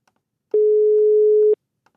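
A single steady telephone line tone hums for about a second while a phone number is dialed, loud and clean, framed by faint clicks before and after, with no voices present.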